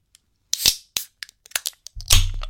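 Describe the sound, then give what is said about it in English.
Beer cans cracking open, a Boneface Voodoo XPA and a Garage Project White Mischief Salted White Peach Sour: a scatter of sharp metallic clicks and pops, with a few louder cracks that each release a brief hiss of fizz, the last one the loudest and longest. “Uh, let's crack them open.”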